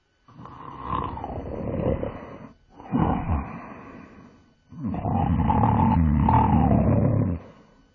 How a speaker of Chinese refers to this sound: 他一进家门就倒在床上大睡起来。那呼噜声比打雷还要响，把大家吓得都从被子里爬出来。